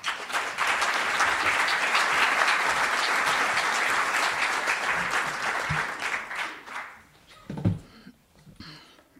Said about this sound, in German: und freut sich über einen Applaus.